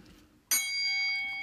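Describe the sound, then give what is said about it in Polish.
A single bright bell chime, marking the start of a new section, strikes after a brief quiet moment, its clear metallic tones ringing out and sustaining steadily with no voices present. “Jest dzwonek. Kolejna sekcja.”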